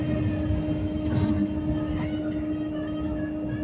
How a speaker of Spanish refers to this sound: Estoy grabando en el autobús.